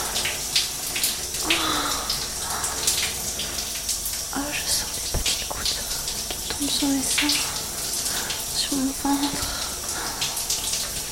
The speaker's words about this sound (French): Je laisse couler l'eau.